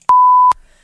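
A single steady electronic beep, loud and clear, holding one pitch for about half a second with clicks at its start and end, covering a missing word in a radio quiz question, standing alone with no voices.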